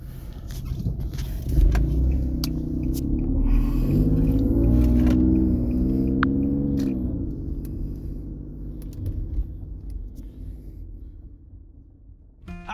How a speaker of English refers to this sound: coming at you live uh, in traffic, um, in my car.